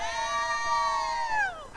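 A crowd lets out a single drawn-out cheer for a shopper, many voices holding a high, steady shout for under two seconds before it slides downward and fades.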